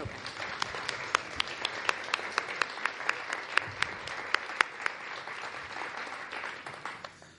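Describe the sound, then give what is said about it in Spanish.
An audience applauds a speaker being introduced at a talk, a dense wash of many hands clapping with sharper individual claps popping out, sustained for several seconds before tapering off at the end. “Un aplauso a Manuel de”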